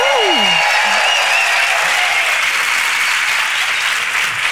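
A large crowd of pharmacists in Madrid applauds steadily, a dense, loud wash of clapping that holds evenly throughout, with a few brief whistles or cheers rising at the very start.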